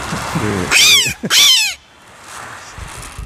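Two loud, shrill gull-like cries in quick succession, made with a simple reed-style mouthpiece rather than a real bird, each wavering and sliding downward, followed by a quiet room.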